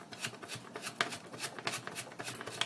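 A cigarette being rolled from loose shag tobacco: a steady run of soft, crinkly paper rustles and small dry scratches in irregular bursts, with no voices.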